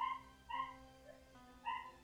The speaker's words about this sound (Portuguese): Parece que tá matando a cachorra. Ai, tadinha. É ela, fica, não, ela é muito escandalosa. Cara, a Salsicha é um cachorrinho muito cheio de energia, é.